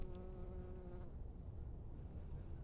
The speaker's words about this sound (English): I don't know if you heard that buzzing. A um, yellow jacket just landed on my head while I'm talking, so wanting to have their part of the conversation as well.